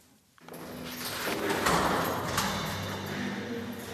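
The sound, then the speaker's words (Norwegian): A heavy iron door in Tromsø prison, Norway, grinds and scrapes as it swings open and closed, with a couple of sharp clanks partway through, fairly loud, no voices. “Etter lange lyseblå korridorer og et utall nøkler bak ei jerndør”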